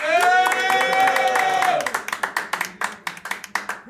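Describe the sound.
A crowd at a producer battle cheers loudly with sustained shouts and whoops for a couple of seconds to vote for one producer as the battle's winner, then the voices drop away, leaving scattered, sharp hand claps that thin out toward the end.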